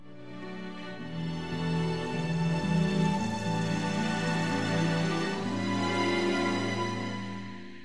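A Christmas rock song plays at a steady, full volume, with sustained layered instruments and shifting notes, and no one talking over it.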